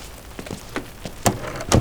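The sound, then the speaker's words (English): Rain patters outside, with scattered drops striking a surface at irregular intervals over a soft, steady background hiss. A few heavier splashes stand out near the end. “No need to stand out there in the rain.”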